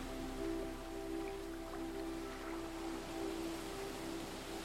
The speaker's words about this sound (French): fil des vagues qui vont et viennent, vous sentez votre corps qui devient lourd et s'enfonce dans le sable.